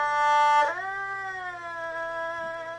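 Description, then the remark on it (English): A bowed string instrument holds a bright, sustained note, then slides smoothly downward in pitch and keeps ringing with a slow, gentle descent, played alone and fairly close. “so this is where the glissando comes from.”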